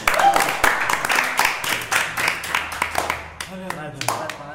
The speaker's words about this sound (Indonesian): Ya, nah, tepuk tangan saya.